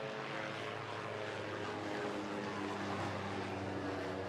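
A propeller aircraft drones steadily overhead, its engine hum constant and fairly loud with a tonal buzz throughout, no voices, holding level for the whole few seconds.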